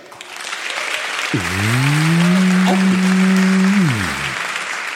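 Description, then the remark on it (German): A live show audience claps steadily throughout after a quiz question, a dense wash of applause, while a long, low mooing tone swells up in the middle and holds for a couple of seconds before sliding away. “Und jetzt euer Applaus.”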